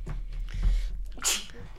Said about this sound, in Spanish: Este, me está bajando un resfrío interesante con esto de la pelusa y la primavera. Ah, ¿eh? sí, sí, estoy a punto de estornudar, ya lo aviso.